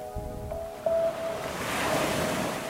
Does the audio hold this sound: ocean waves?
yes